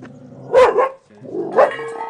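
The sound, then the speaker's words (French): A dog barks a few times, two quick loud barks followed by another after a short pause, with a faint steady hum underneath and no one talking. “Coucher le chien.”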